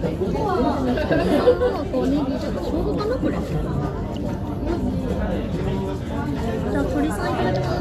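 Steady chatter in a Tsukada Nojo restaurant where people are drinking and eating gyoza, many overlapping voices blending into a dense, continuous babble at moderate loudness with no single speaker standing out.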